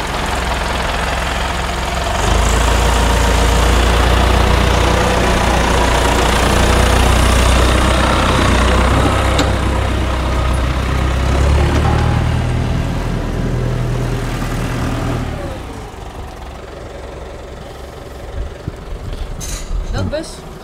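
A loud tractor engine rumbles steadily as someone gets into the tractor, idling and revving with a heavy low-frequency drone for about fifteen seconds, then cuts back to quieter sounds with a few knocks.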